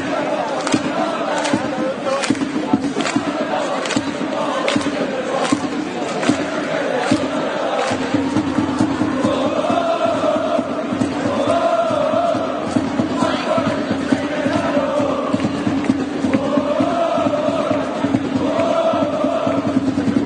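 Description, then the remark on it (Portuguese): A large crowd of Glasgow Rangers football supporters sings a club chant in unison, loud and continuous, with rhythmic claps or stamps punctuating the melody throughout. “Vamos ouvir o Enia Campeonato do Glasgow Rangers.”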